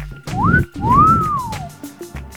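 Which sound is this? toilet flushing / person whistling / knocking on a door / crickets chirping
person whistling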